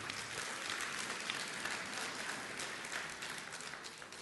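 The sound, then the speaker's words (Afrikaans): A church audience claps together for a woman's birthday in steady, dense applause, a bright crackling wash of many hands that holds fairly even for about four seconds with no voices standing out. “Geef haar lekker 'n klap.”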